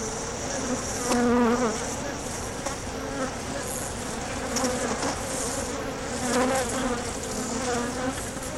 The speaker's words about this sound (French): Euh, certaines sont empilées, euh, cinq hausses ou deux hausses, et puis on voit ce, ce nuage d'abeilles qui, qui vont et viennent entre euh, butiner dans la nature autour et puis rentrer dans le ruche.